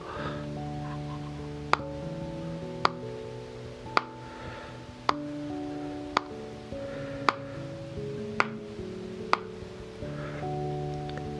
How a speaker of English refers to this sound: My best tip is to use Pros-Aide cream adhesive. I'm tapping on the tub I use now.